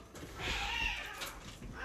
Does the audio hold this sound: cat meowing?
yes